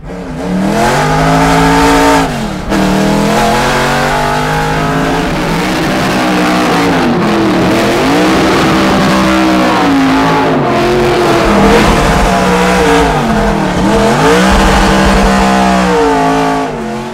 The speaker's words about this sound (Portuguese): Vale lembrar, pessoal, falando em, em V8, né? Evidentemente é um V8 pelo ronco, né?